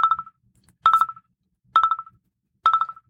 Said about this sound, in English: You're going off on a rant, and now somebody's calling it. Just answer the damn phone.